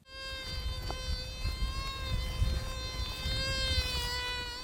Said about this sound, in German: Das ist keine Mucke, das ist ein Summen von einem Metalldetektor. Ein langer Stock und unten dran ein Teller.